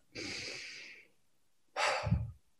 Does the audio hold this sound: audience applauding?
no